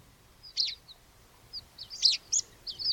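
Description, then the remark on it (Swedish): A water pipit of the coutelli race gives a string of thin, high, squeaky calls at irregular intervals, some doubled, very like a meadow pipit's, moderately soft over a faint low background hum, with no voices. “Att, att ta ett sånt där, det är ju väldigt ängspiplikt alltså.”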